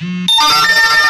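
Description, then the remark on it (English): Phone notification alert tones chime loudly, a bright layered burst of electronic beeps following a brief lower tone, with a quick spoken word at the start. “sorry about the constant noise. That's my notifications.”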